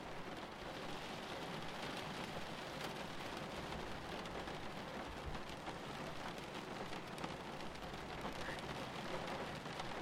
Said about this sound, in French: Pendant quelques minutes, vous n'entendez plus que la pluie et votre respiration. Mélodie discrète régulière.